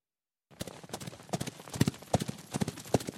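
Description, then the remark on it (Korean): Horse hooves clip-clopping in a steady, brisk rhythm as a horse is ridden across a desert, each sharp knock clearly separated, with a faint second hoof echoing some strikes. No voices, just the hoofbeats alone at moderate volume. “말을 타고 사막을 가로질렀다.”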